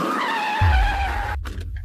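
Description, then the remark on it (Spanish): Jorge's car brakes hard after running someone over, its tires letting out a long, loud, high squeal, with a heavy low engine rumble rising underneath before the skid cuts off abruptly near the end. “Su mente quedó en blanco mientras veía el auto de Jorge deteniéndose durante unos segundos tras el atropello.”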